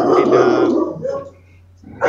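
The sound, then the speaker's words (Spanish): A dog, one of two pet dogs named Maga and Chami, barks loudly, a long run of barking followed by a shorter bark, a brief pause, then another bark starting up at the end. “Ah, bueno, vamos a saludar a tu perro, ¿cómo se llama?”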